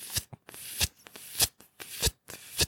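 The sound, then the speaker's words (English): A voice imitates a vinyl record's run-out groove at the end of a side with a steady loop of crackly, swishing bursts, repeating roughly every half second, fairly loud with no other talk. “But uh, halfway through the album, at the end of one of the songs, they have you know if you back in the day you listen to vinyls or me in the day now, you get to the end of a side and it makes that”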